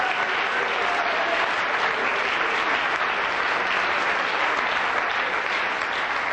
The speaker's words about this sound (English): Somebody clap your hands to the Lord and praise him right now.